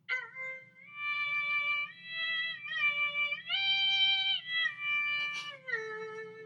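An erhu is played live for an audience: a short solo melody of long, bowed, nasal-sounding notes that slide smoothly between pitches, with a faint low hum beneath and a brief scratchy burst near the end.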